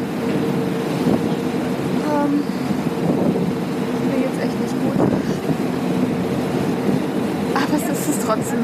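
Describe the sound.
A boat engine drones steadily on the open sea with a constant wash of water and wind, a continuous rumble that never lets up; faint, indistinct voices surface now and then beneath it.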